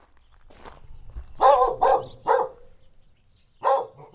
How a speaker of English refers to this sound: Their palomino coated dog named DOG seems a bit suspicious of my microphone. She just showed up one day and and I don't know, we're suckers for puppies, so she stayed.